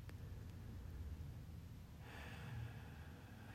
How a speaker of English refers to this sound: Continue with that breath. Few more times. You can do the sound or not, totally up to you. Continue this deep breathing.